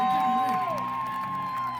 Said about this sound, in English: Folks, round of applause for the famous Chip and Dale. think we need more clapping and screaming for Chippendale. Come on, folks, put your hands together